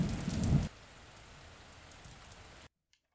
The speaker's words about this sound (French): Je me plaignais de la météo à ici, mais à Londres, c'est pire. Le tonnerre gronde et la pluie frappe sur les vitres de la gare.